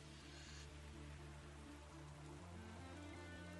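A soft, steady hiss of rain falling, continuous and even throughout, fairly quiet and diffuse with a faint low hum beneath it and no voices.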